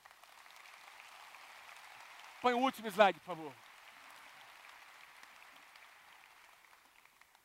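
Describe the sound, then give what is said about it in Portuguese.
Steady applause from a church audience, clapping for the Lord, fills the whole clip as a dense, even wash of clapping, with a man briefly speaking over it partway through. “Quem pode dar um aplauso bem forte ao Senhor?”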